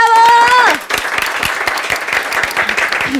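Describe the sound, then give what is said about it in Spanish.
An audience breaks into steady, loud applause, many overlapping claps forming a dense patter, preceded by a brief sustained tonal voice or whistle at the very start. “Otro aplauso.”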